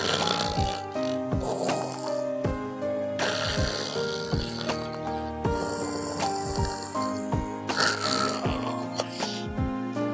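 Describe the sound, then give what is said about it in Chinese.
A voice imitates the fat little pig of a children's story snoring, a series of rough, grunting snores repeating every couple of seconds over a steady musical background, with no words spoken. “胖小猪又开始打起了呼噜，”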